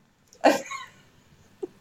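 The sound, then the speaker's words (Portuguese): A person playfully pretending to be a dog gives one loud, bark-like yelp that trails off quickly, followed by a faint brief vocal sound a moment later. “Uma pessoa até pode brincar. Fingir que é um cão.”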